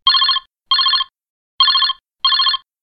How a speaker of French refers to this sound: on a un coup de téléphone. On va décrocher et puis on va écouter.